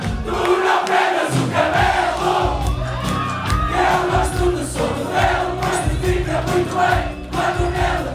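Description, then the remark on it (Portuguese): About 400 people sing together in unison at full voice in the full auditorium of the Círculo Católico de Operários do Porto, a historic hall in Porto, on a Friday night: a dense, sustained wall of voices, steady and loud throughout with no individual speech standing out. “sala está cheia, cerca de 400 pessoas cantam em uníssono, a plenos pulmões, as músicas de um ídolo que nunca puderam ouvir ao vivo.”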